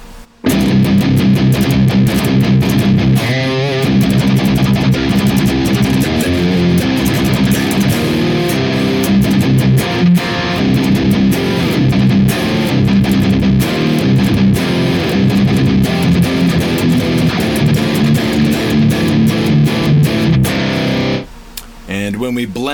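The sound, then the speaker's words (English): Heavily distorted electric guitar, played through the POTD green KT88 impulse response in stereo in the Neural DSP Archetype Nolly, plays a loud, continuous riff with thick, saturated amp tone for about twenty seconds, then cuts off abruptly near the end. “So when we utilize the POTD green KT88 impulse response in stereo in our neural DSP archetype Nolly, it sounds like this.”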